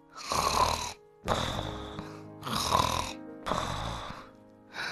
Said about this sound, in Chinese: 大老鼠，大老鼠，你在打呼呢！